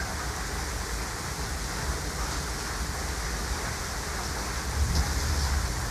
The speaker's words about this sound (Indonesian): Nah setelah abang gue masuk ke rumah, hujan datang nih.